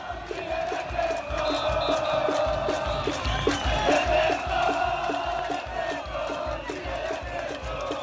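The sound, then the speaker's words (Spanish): A street crowd chants together at a protest during the first week of a mobilization, recorded on a cellphone in the street outside a home, loud and continuous, with steady rhythmic banging or drumbeats pulsing beneath the massed voices throughout. “Eh, la grabé con mi celular en la calle, afuera de mi casa, eh, ya no me acuerdo qué día de la primera semana de la movilización el año pasado.”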